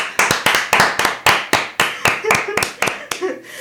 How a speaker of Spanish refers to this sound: ¡Ole! Un aplauso.